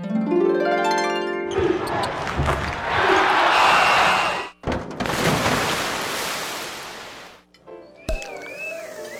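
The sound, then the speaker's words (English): A quick succession of loud sound effects played from a sound effects machine: a rising boing-like tone, a burst of crashing noise, more rushing noise, then a warbling siren-like whistle, with no talking. “Yep, I bought a sound effects machine.”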